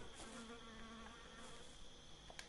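Several flies buzzing continuously around blood on the floor, their droning hum wavering in pitch as they circle, with a faint steady background hiss and no voices.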